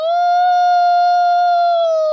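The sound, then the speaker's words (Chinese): A wolf howls in one long, loud, steady note lasting about two seconds, its pitch rising slightly at the start and easing down at the end, with no other sounds. “为什么狼喜欢在黑夜里嚎叫？”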